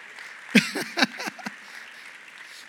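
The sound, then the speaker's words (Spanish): A handful of scattered, uneven claps from an audience, about five or six sharp slaps over a second, then fading to a quiet murmur before one last clap at the end. “Aunque no aplaudan.”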